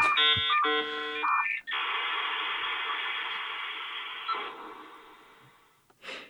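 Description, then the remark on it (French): A dial-up modem connecting to the Internet: stacked electronic tones and beeps give way to a loud, steady hiss of screeching static that slowly fades, ending with a brief burst of noise. “Il fallait utiliser un modem qui faisait ce bruit absurde Oh là là là là.”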